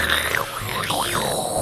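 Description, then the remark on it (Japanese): A voice mimics an old radio being tuned, a warbling tone that sweeps up and down in wavy arcs, like a dial sliding across stations, lasting under two seconds. “あのー、やっぱりちょっとあの周波数がありましてね 周波数だ これをねうまいこと合わせるのが難しいんですよあるじゃないですか昔のラジオだってねこうやってあの うん チューニング”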